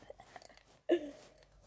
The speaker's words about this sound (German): Einmal kauen ist ein Punkt.